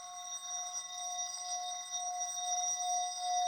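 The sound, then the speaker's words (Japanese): An orin bowl rubbed around its rim gives a steady, shimmering ring with several bright overtones, holding at an even moderate level without fading. No voices are heard. “おりんをこすって鳴らしてみた”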